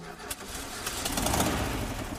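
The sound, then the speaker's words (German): The boxer engine of Hilde, a lovingly restored 1969 VW T2 Transporter van, running: a steady throaty rumble and hum that swells slightly as it settles into idle, with no talking. “Das ist das Summen eines Boxermotors und der ist verbaut in Hilde, einem liebevoll restaurierten VW T2 Transporter aus dem Jahr 1969.”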